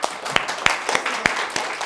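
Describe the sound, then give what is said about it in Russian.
An audience applauds for someone's courage in a dense, steady patter of many hands, with a few sharper individual claps standing out at a fairly even rhythm, moderately loud and without any talking. “Так, аплодисменты за смелость.”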